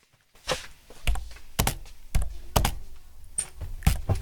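Heavy keystrokes on a computer keyboard, struck firmly in an uneven rhythm of sharp clacks and thuds, with no one speaking.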